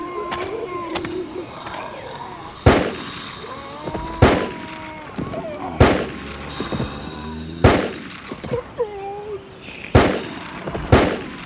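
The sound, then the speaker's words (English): Six sharp, loud gunshots, one shot at each of six eaters, ring out one at a time, spaced about a second and a half apart, over a busy bed of warbling, chittering background noise. “Six eaters, six shots.”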